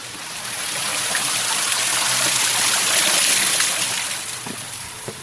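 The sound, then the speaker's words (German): Steady rain falls outdoors in Stuttgart by stone steps leading up to a pavilion, a dense, even hiss of water that swells slightly and then eases toward the end, with a few faint scattered splashes and no voices. “paar Steinstufen geht es hinauf, durch den Regen, hinein ins Trockene.”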